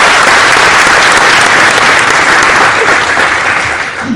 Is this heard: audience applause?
yes